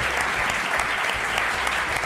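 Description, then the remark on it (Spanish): A crowd claps steadily and loudly for about two seconds, a dense, even patter of many hands with no voices standing out. “Dale un aplauso a José Arocena también, por favor.”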